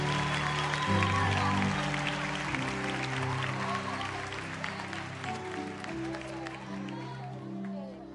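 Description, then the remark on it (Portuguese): An audience applauds steadily for their pastor and children, a dense wash of clapping hands lasting several seconds, with a low sustained musical tone playing underneath and murmuring voices mixed in. “Uma salva de palmas para a nossa pastora e nossos filhos.”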